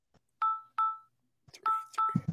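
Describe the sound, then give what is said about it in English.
Touch-tone beeps as a phone number is dialed, several short steady tones in a row, the later ones overlapped by background voices and noise. “This is the phone number that is listed on your drunk tailgate picture.”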